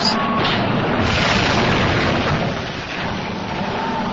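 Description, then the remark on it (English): The Titanic's hull cracking in two: a loud, sustained roaring crash with a deep rumbling boom underneath, filling several seconds without letup, overwhelming, with no voices. “The ship cracking in two.”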